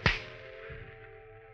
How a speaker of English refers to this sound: I didn't mean, mean to slap you.